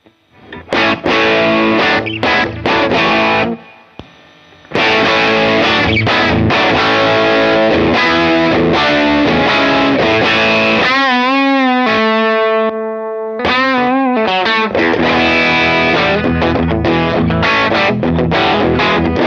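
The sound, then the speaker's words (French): Heavily saturated electric guitar through two stacked overdrive pedals, side B routed into side A so that side A saturates more, plays loud, dense chords and riffs, with a brief pause early on and a few sustained, wavering notes midway. No one speaks. “Voilà, donc là, on, a, on entend bien, je trouve, que la, la structure du gain change, à savoir comme on envoie un signal très important dans le côté euh, A, euh, euh, le côté A donc se met à saturer plus.”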